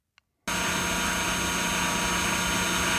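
A large powered rescue cutter, whose two blades can cut through wood and metal, starts up: a small click, then its motor abruptly roars to life with a loud, steady, buzzing drone that holds on without a break.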